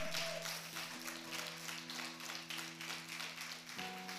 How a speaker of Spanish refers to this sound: A ver, profetice con un aplauso.